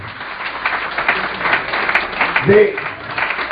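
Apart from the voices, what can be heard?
audience applause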